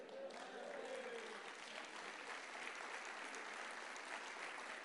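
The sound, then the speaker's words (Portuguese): A standing audience claps for the Lord, a dense, sustained patter of many hands at even loudness throughout, with a faint voice briefly audible under the applause near the start. “Então fique em pé e dá um glória a Deus e aplauda ao Senhor.”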